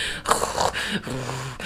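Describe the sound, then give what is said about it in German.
A person imitates the grunting of a cat that cannot purr and grunts instead: a short run of breathy, snorting grunts, with brief pauses between them and no other talk. “Sie, sie kann nicht schnurren. Sie grunzt einfach nur die ganze Zeit.”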